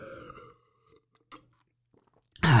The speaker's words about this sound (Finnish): Mä otan pienen huikan vettä